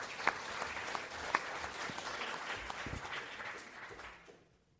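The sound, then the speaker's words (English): A room full of people applauding steadily to welcome a speaker, dense overlapping claps at moderate loudness with a couple of sharper claps standing out, tapering off at the end. “Please join me in welcoming”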